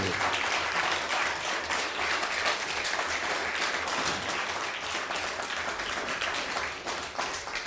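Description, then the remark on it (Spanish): Loud, sustained audience applause fills the whole stretch, a dense wash of many hands clapping at steady volume with no pauses and no voices standing out. “No, pero que se escuche fuerte el aplauso.”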